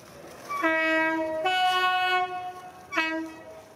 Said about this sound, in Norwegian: Ut fra et sidespor knirker et tog seg sakte fram. Okay, barriers are down, crossing is clear. Det ser ut som en gammel, firkantet britisk motorvogn. Det er en gammel, firkantet britisk motorvogn. Bare det at den er bygd om til å gå på hydrogen.